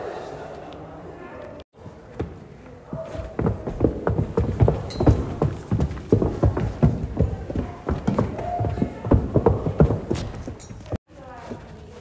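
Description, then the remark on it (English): Many children's footsteps clatter across a hard school floor, a dense, irregular patter of sharp steps that swells and continues for several seconds, with faint voices murmuring in the background. “We chose to record footsteps because it captures the transition state of children and their learning mindset.”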